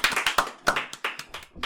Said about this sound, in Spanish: Un aplauso, un aplauso. Bravo, un aplauso aquí.